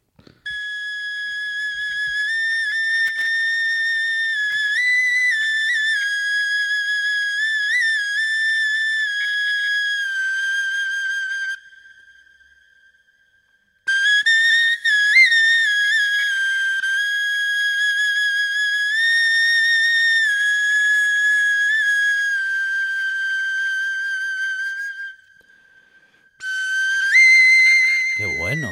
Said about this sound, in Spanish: Entonces, la primera audio que vamos a escuchar es una reconstrucción de esta flauta de Hochefels, el instrumento más antiguo del mundo.